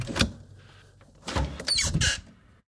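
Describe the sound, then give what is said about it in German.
A roof skylight window, reaching up to two meters high and located above the microphone, is opened: a sharp clack, then a scraping, rattling slide with a couple of firm knocks as the frame moves, ending abruptly in silence. “Dann kommt ein weiteres Dachfenster und das geht bis in zwei Metern Höhe und all das befindet sich über dem Mikrofon.”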